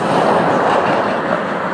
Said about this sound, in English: I'm walking beside a very busy road if you hear some traffic.